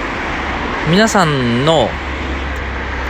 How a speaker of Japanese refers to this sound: これ音入ってるんかな、えー、車が通る音がしてるかもしれませんけど、えー、今ライブハウスの前の店の前の幹線道路で収録してるのでちょっと雑音が多いかもしれませんが、えー、ね、バイクも通っております